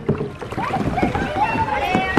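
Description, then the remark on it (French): Canoes knocking together and paddles working the water on the narrow Douve river at the leisure base of Saint-Sauveur-le-Vicomte, as a CE2 school class starts a canoeing initiation, with a busy mix of voices chattering and calling out over the steady splashing. “Voilà, mais ça fait autotampon là La rivière n'est pas très large donc il euh, faut que tout le monde démarre et c'est autotamponneuse, c'est clair.”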